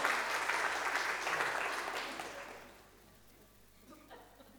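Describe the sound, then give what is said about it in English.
A crowd claps steadily for a couple of seconds, a dense patter of many hands, then the applause tapers off into quiet room noise with a few faint scattered claps. “I think you all deserve a round of applause.”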